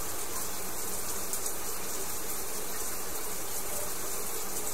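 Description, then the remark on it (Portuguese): Hot shower water runs steadily throughout in a small house, a dense, even hiss of spray that stays constant in loudness with no pauses or voices. “E é a primeira vez em semanas que eu tô tomando um banho.”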